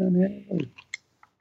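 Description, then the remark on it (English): A short vocal murmur, then three small, sharp clicks and taps spaced unevenly as headphones that popped out are fumbled back into their jack, fairly quiet. “That's the, the time of the week where I pop my headphones out. Hold on. Yeah, where's the hole?”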